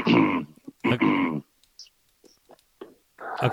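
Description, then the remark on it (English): Two loud, raspy throat clearings close together, followed by a stretch of near silence with a few faint clicks and rustles, then another rough burst of sound at the end. “clear your throat and start talking about competing yes, you are.”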